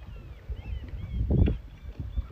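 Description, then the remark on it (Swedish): Gentle water laps and sloshes against a wooden dock in soft, irregular pulses, with one fuller slosh midway. Faint bird chirps drift in the background, and no one speaks. “Kanske kan du höra mitt kluckande ljud av vattnet.”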